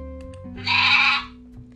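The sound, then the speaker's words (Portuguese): A single bleat of a little sheep, short and fairly loud, rising out of a quiet background with a faint low hum. It lasts about half a second, with a nasal, wavering tone and no talking. “E a nossa estrela principal, a pequena ovelha”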